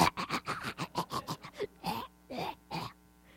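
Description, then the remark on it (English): A voice fakes the coughing and choking of a new smoker: a quick run of about a dozen short, rasping bursts, then three longer strained hacks, fairly loud with no other talking. “Of course, you have to really want to smoke in order to smoke because you cough and choke and get sick and all those things for about the ter- first couple of weeks till you're cool.”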